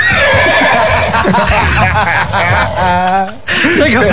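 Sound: horse neighing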